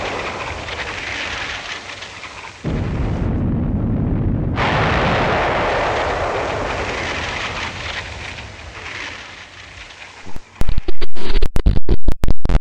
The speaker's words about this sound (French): Je me trouve sur la côte d'Azur où sévit actuellement la plus grande tempête qu'ait jamais connue cette région. Une bonne partie de la population se trouve en exode car les habitations ne parviennent pas à résister aux puissantes rafales de vent